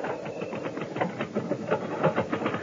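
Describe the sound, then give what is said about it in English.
Rapid typing by a gossip columnist on a typewriter, a steady run of sharp mechanical key clacks at an uneven, busy rhythm, with no voices. “That's her typing.”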